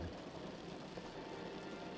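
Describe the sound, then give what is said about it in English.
Steady rain patters against a window at night, a soft continuous hiss with dense, fine droplet taps, even and unbroken, with no voices. “Only the sound of the rain at night as you lay in your bed can be so comforting.”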